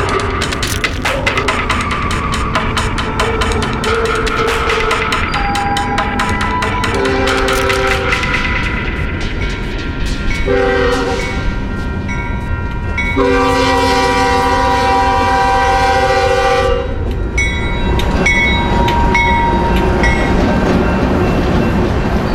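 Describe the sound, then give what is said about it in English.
A westbound CSX freight train with three engines at the front rumbles and rattles past steadily while its horn sounds several loud, chord-like blasts, two short ones followed by a long held one, before the rolling clatter continues alone. “After 40 hours I see a C.S.X. three engines in the front pulling westbound.”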